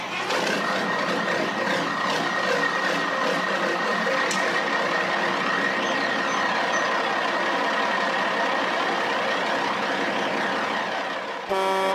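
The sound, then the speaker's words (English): A big truck engine rumbles loudly and steadily for about twelve seconds, with a high, sustained reversing warning beep riding over the roar before it cuts off abruptly. “We jump all the big truck segment.”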